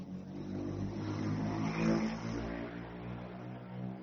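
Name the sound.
car passing by outside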